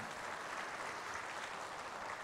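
An audience claps steadily at the speaker's prompt, a dense wash of many hands applauding, sustained and even throughout without any voices standing out.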